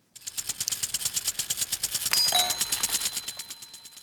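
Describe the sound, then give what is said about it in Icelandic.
A garden sprinkler chatters steadily, a rapid, even train of hissing ticks of spraying water running throughout, with a brief metallic ping partway through and no voices. “Garðúðari varða.”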